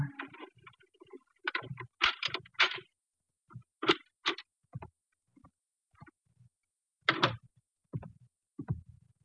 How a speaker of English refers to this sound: Then we heard muffled footsteps coming down the hall and a key inserted in the lock of the apartment door.